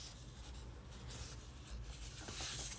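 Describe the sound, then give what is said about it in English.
Soft rustling of paper as pages of a self-reflection journal are turned, with a few brief crinkly swishes over a quiet, continuous shuffle and no voices. “As you hear me turning the pages and I went over this.”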